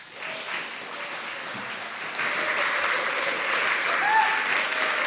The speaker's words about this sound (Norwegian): Forfatter og journalist Marta Breen er dagens festtaler. Gi hun en varm applaus.